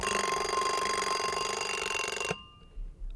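An alarm clock bell rings loudly and continuously in a rapid metallic trill for about two seconds, then cuts off abruptly, leaving near silence with a faint soft thump.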